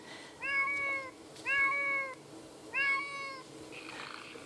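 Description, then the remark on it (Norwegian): A kitten meows three times in a steady rhythm, each high-pitched cry clear with a slightly tinny, electronic quality, played from a classic children's non-fiction sound book. “Hører dere kattungen der?”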